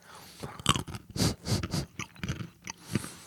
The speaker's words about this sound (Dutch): dan, ga ik gewoon mijn nootje eten hier in, in beeld.